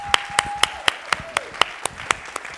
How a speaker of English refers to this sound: Could we have a another round of applause? A round of applause.